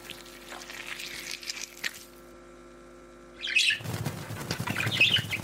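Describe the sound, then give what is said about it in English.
A flurry of birds' wings flapping, a rustling burst that stops for a moment, then returns louder and busier, with faint chirps mixed in and no one speaking. “Oh, get those birds out of here!”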